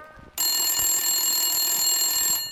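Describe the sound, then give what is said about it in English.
An old-fashioned 1800s telephone bell rings loudly and continuously for about two seconds as a prank call comes in, a bright metallic jangle that starts abruptly after a brief quiet moment and fades slightly at the end. “We have a recording of the phone calls as they unfolded.”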